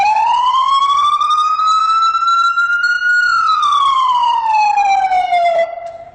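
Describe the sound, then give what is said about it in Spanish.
A loud emergency vehicle siren in the tone used while en route on long avenues, sounding a slow wail, its pitch rising gradually, holding, then sliding back down in one long continuous sweep with no talking. “Este tono que vas a escuchar a continuación es cuando nosotros estamos en ruta, en avenidas largas.”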